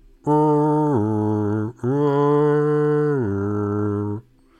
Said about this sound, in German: Und ihr hört wieder von draußen, diesmal etwas näher, das Geräusch von Jagdhörnern aus dem Wald.